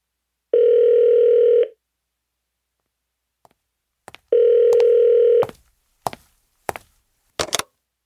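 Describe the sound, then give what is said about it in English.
A telephone rings twice in long, steady electronic tones separated by a pause, followed by a few sharp clicks and taps as the call is picked up. No one speaks. “And just like that, I think my phone is ringing.”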